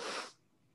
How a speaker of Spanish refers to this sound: ¡Salud! Primero estornudo. Primero estornudo del podcast. ¡Wow! Honestamente, me ha aguantado como 10.000 ya, mae.